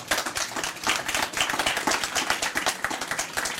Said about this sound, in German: Ja, gerne Applaus.